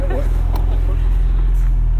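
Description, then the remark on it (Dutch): A convertible car roof closing, with a steady low electric motor hum running throughout and a voice briefly speaking near the start. “Oh, daar gaat het dak erop.”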